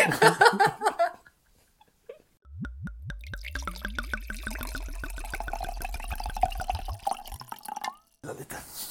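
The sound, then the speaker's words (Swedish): Mionetto prosecco glugs rapidly and steadily from a bottle into a glass for several seconds, with a short burst of talking before the pour and another voice right after. “Så idag dricker vi bubbel, mm. prosecco, mionetto”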